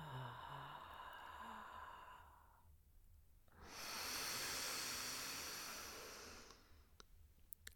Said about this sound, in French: On appuie sur son ventre, on appuie, on laisse bien tout l'air sortir.